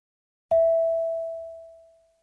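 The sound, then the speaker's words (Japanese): A single clear chime tone, cueing the listener to speak in a Japanese language training exercise, strikes once and rings out, slowly fading over about two seconds with no other sounds around it. “Speak after the tone.”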